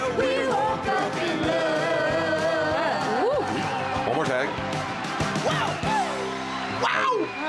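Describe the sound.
A loud, dense crowd roars continuously, with overlapping yells, whoops and rising shouts piercing the steady din of many voices throughout.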